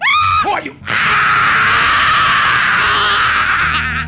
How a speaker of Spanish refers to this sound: Y ella empieza a gritar cuando se le empieza a salir el demonio